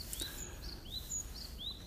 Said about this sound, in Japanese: 鳥の声が聞こえるでしょうか、えー、近所の公園にやってきています